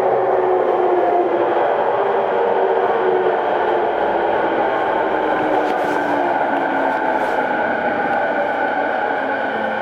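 A Tokyo Waterfront Area Rapid Transit (Rinkai Line) 70-000 series commuter train runs between Shin-Kiba and Tokyo Teleport. It runs steadily with a loud, continuous rumble and a sustained whining motor tone that slowly glides in pitch. There are brief hissy bursts partway through and no speech.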